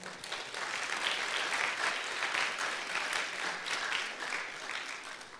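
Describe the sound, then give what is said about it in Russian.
An audience breaks into steady applause for God, a dense wash of many hands clapping that holds at an even level for several seconds before easing slightly at the end. “Ну, Господу можем еще с вами аплодисментиков дать, да?”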